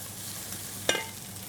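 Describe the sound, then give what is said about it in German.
Mushroom trimmings, the offcuts left from cutting out cubes, sweat in a pan with a steady, soft sizzling hiss, broken once by a brief clink of a spoon stirring against the pan. No one speaks. “Schwitzen das noch ein bisschen mit an.”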